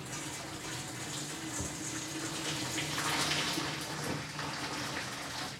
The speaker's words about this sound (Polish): I spokojnie oblewam wrzątkiem pomidor.